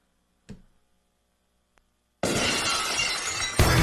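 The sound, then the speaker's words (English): A glass-shattering sound effect played on a BetQL network betting show: a brief impact tick, then a sudden loud burst of shattering glass that crashes and sprays for over a second, ending in a sharper final smash. No voices accompany it. “Bookies are terrified when you hear the glass.”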